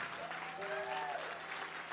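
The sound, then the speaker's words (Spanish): A crowd of people claps steadily in an applause of faith, a dense wash of applause with a faint sustained tone or voice rising briefly through the middle. “Vamos, a denle un aplauso de fe.”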